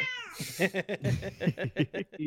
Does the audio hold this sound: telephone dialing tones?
no